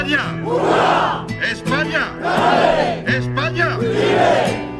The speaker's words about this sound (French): Une certaine droite espagnole qui revendique l'héritage franquiste n'est pas du tout contente de ça. Elle manifeste, elle fait du bruit.